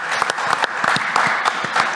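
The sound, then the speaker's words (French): A crowd applauds two people steadily, a dense wash of many hands clapping with a few sharper individual claps standing out, sustained at an even, fairly loud level throughout. “Voilà, applaudissements”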